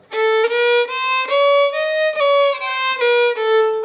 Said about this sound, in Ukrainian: Ага, ти, оце так зараз ти налаштовуєш скрипку. Та, й вже. Зараз буде противні звуки.